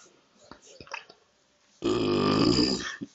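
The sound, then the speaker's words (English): A single long, loud, croaky burp rumbles for about a second after a few quiet clicks and small mouth noises, with a faint smack at the end. “We're then going to burp.”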